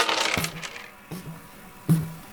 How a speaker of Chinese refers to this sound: 快点丢骰子吧！